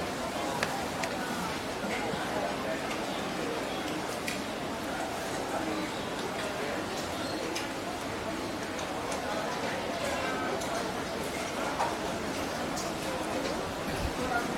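Busy hawker centre food court, an everyday eatery for ordinary people: a steady wash of overlapping crowd chatter, with scattered clinks and clatters of dishes and utensils throughout, fairly loud.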